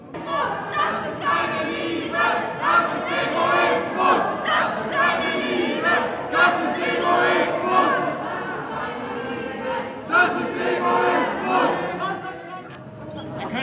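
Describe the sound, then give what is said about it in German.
A loud counter-protest crowd around the corner from a Querdenker protest shouts and chants continuously, many voices overlapping in rising and falling surges of collective yelling throughout. “Hier um die Ecke steht ein Gegenprotest, der das Ganze lautstark, wie ihr hören könnt, begleitet.”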